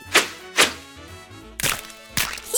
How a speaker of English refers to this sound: Yeah, bullseye! Hey, why did those kids throw eggs on that car?